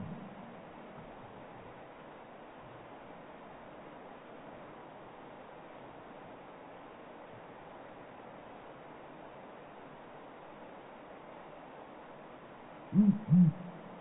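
A Blakiston's fish owl gives two deep, booming hoots in quick succession near the end, rising over a constant rushing background like wind or flowing water.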